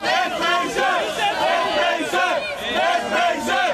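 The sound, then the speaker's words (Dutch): Dozens of protesters gathered in front of the Waku Waku restaurant in Utrecht to stop police from clearing it, shouting and chanting together in a loud, dense roar of many raised voices that swells and dips in waves without pause. “Tientallen mensen hadden zich voor het eh, restaurant verzameld om de politie tegen te houden.”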